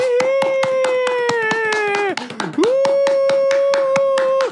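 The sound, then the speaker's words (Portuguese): Steady, rhythmic hand clapping, loud, about four claps a second, under a long held vocal cry that dips in the middle and then rises again. “Palmas.”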